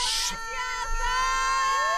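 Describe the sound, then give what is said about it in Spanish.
A girl's shrill, sustained scream rings out from a live audience, high and piercing over a faint crowd murmur, holding steady for a couple of seconds. “La niña que está gritando, chiquito precioso, ¿le gusta la niña que estás gritando?”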